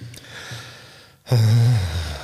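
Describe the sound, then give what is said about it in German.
A slow, airy inhale, a brief pause, then a louder, deeper exhale with a voiced, sighing tone, with no talking. “Das heißt, wenn du jetzt mal tief durchatmest”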